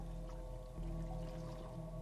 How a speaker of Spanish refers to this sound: Él está echando agua bendita en todos lados.